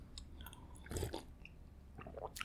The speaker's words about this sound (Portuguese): Esse, esse silêncio é porque eu tô mastigando uma bolacha e tomando um balde de café.